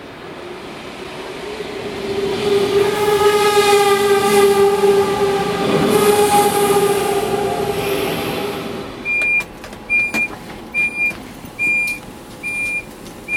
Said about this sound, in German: Ich bin am Koblenzer Hauptbahnhof und fahre jetzt mit dem Zug nach Frankfurt zum Hauptbahnhof. Der Zug kommt auch schon